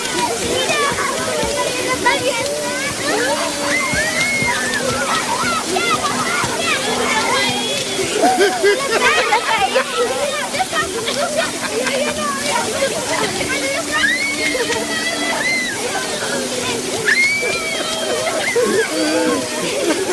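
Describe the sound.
Steady rain pours down with continuous splashing and sloshing water throughout, fairly loud, while indistinct children's voices chatter and call beneath it as the children leave their houses and go into a church, and a faint low hum lingers.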